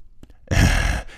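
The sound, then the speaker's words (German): A single heavy, exasperated breath, imitated by a person: a loud, breathy exhale lasting about half a second, preceded by a couple of soft intakes. “Das Leute da so, dass Leute, man hört schon das schwere Atmen der Leute.”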